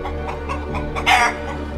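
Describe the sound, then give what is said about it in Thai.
A chicken clucks in a quick series of short, rhythmic bursts, rising into a louder, harsher squawk near the end, with no talking. “เมื่อพระองค์ได้ส่องกระจก พระองค์ก็ได้รู้สึกประหลาดพระทัยเป็นอย่างมาก เมื่อได้เห็นไก่ตงจ้องมองมาที่พระองค์”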